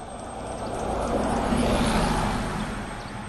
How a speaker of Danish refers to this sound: Nu kommer der en bus, den har flag på. Den kører til Stege.